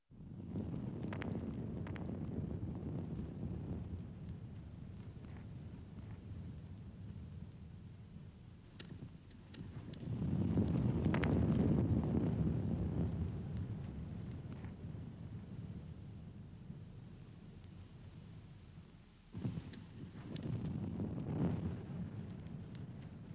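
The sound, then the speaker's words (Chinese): Deep, continuous rumbling of the volcano on Tanna Island, a 27-second recording, swells into two louder roaring surges, with a short sharp blast just before the final surge. No voices are heard. “那在这个记事里面的第一首，呃，火山的声音”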